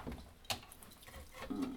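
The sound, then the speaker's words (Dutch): A sharp, distinct tick with a fainter click following about a second later, the slow, steady ticking of a large hanging pendulum clock. “Even terzijde, de tik, tik, tik op de achtergrond. Dat is een eh, mooie grote hangende klok. Die blijft wel tikken.”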